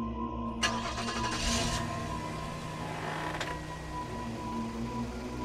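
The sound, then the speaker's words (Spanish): A car engine cranks briefly and catches on the first attempt after the car had sat since Friday with its battery expected to be dead, settling into a steady idle hum with a slight rev; no one speaks. “Para nuestra desagradable sorpresa, mi coche prendió al primer intento.”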